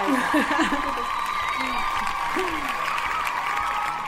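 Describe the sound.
An audience claps in a steady, dense wash of applause for about four seconds, with scattered voices and a few rising shouts mixed into the clapping.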